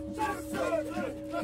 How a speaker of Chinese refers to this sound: 当地的夏尔巴向导正在向山神祈祷，保佑大家登山平安。